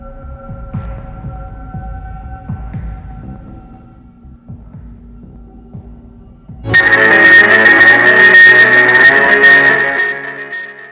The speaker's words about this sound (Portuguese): Mais ou menos às quatro e meia da manhã, acordei de repente. Um som alto, grosso e eletrificado encheu o ambiente. Levantei em um salto e procurei pela fonte daquele som. Ele vinha do meu toca-discos.